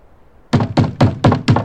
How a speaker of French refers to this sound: Au matin, des coups violents résonnent contre la porte.